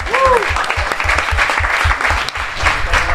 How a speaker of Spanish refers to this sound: usted, caballero, bravo. ¡Un aplauso!